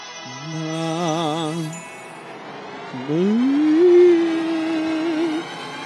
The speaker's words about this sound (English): Nick, Nick, Nick, Nick, Nick, Nick, Nick, Nick, Nickelodeon.